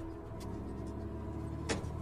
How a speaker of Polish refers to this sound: Zamykasz bagażnik, wsiadasz do samochodu, zapuszczasz motor